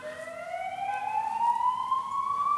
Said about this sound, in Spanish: Ahí están las putas sirenas.